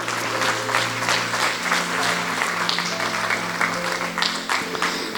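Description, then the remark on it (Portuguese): An audience claps together for Jesus Christ, the Lord, in sustained, dense applause lasting several seconds, steady and fairly loud, with a low hum underneath and no clear speech. “Para Jesus Cristo, uma salva de palmas para o Senhor.”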